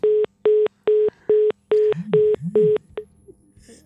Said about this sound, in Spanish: Oímos cómo comunica el teléfono.